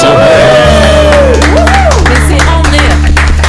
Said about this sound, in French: Et je veux pas dire, il y a que moi qui ai applaudi en premier